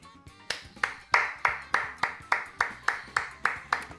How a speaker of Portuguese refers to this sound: Palmas para a ciência, palmas para o desenvolvimento científico, palmas aí para essa construção de ar que você comentou aí, que incrível, incrível.